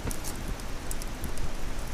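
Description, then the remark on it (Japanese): A campfire crackles, a steady hissing bed broken by scattered sharp pops and snaps at an uneven rhythm, with no voices over it. “音が大好きなので この焚き火のき火の音”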